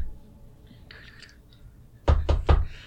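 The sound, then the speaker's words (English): Three quick, loud knocks in a tight, even rhythm on a front gate, after a stretch of faint background hiss; no one speaks. “I guess we'll go up to the front gate yeah. and just be like, knock, hello, please, knock, knock, knock.”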